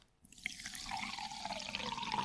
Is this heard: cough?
no